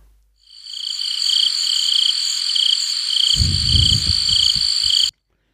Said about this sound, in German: Mal, ich kann ja auch Ganz so ein Grillenzirpen einbauen. Dann wird es dann wird's auch künstlerisch ähm, anspruchsvoll.